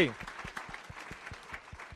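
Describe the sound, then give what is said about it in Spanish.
An audience applauds itself steadily for about two seconds, a dense wash of many hands clapping with a fairly regular pulse. A voice briefly speaks at the very start. “Date un aplauso.”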